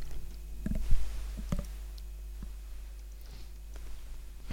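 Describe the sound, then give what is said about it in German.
Popping candy crackles inside an open mouth with a headset microphone pushed into it: a scatter of tiny, irregular clicks and pops over a low hum, with no talking. “Das klingt jetzt wie diese Magic Das war Beans, Knister. Hört ihr Knistern?”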